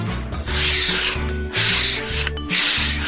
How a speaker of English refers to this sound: Moose sands it smooth.